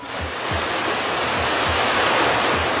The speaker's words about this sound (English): All hoses coupled up. We'll flood that thing with water from all angles. All right, here's the signal. Open them up. Full blast.